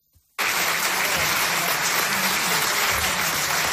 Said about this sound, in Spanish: Pues una emotiva ovación se imponía este lunes en el Auditori 1899 en Barcelona.